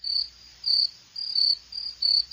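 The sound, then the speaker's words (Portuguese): A person whistles through the mouth in a piercing, high-pitched imitation of a call, repeating short shrill bursts in a steady rhythm, clear with no talking. “o assobio de índio do Conan”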